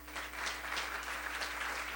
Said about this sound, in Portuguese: Aleluia. Vamos aplaudir o Senhor Jesus por isso.